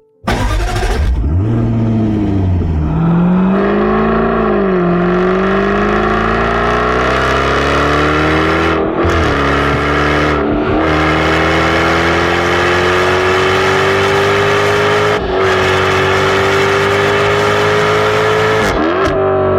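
A Jaguar F-Type sports car's supercharged V8 combustion engine revs hard, its pitch climbing steadily with brief dips at gear changes, a loud continuous roar with no voices over it.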